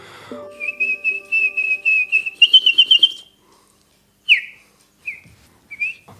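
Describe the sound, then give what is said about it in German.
A person whistles imitations of chaffinch and tit songs: a rapid run of pulsing, rising trilled notes for about three seconds, then a pause and three short, chirpy whistles, clear. “Und so machen die die verschiedensten Vögel nach, Buchfinken, Meisen, die Vögel, die halt dort leben, die auch teilweise bei uns leben.”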